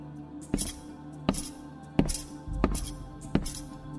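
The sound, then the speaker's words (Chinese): Five heavy, thudding footsteps fall at a slow, even walking pace over a steady low hum, with no voices present. “脚步声再次响起，他又恐惧的浑身颤抖。”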